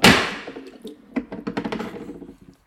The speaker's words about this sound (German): Jetzt habe ich das Bier umgeschüttet.